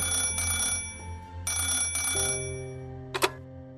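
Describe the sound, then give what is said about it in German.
An old-style telephone bell rings at night in two long bursts of rapid metallic trilling, followed by a brief clatter as if the receiver is picked up, with a low hum underneath. “Damals bekommt er nachts Anrufe.”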